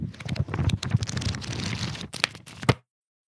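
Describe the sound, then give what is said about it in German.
Pages of a thick copy of Parzival being leafed through: a steady run of papery rustles and crinkles, with a few sharper flicks and a louder snap near the end before it falls silent. “Das klingt nach einer Bibel, so vom Format her.”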